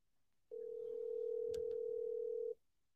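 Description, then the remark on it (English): A single steady ringback tone over the phone line during an outgoing call to a business line, holding a flat, even pitch for about two seconds before cutting off, with a faint click partway through and no talking. “I'm calling a business line.”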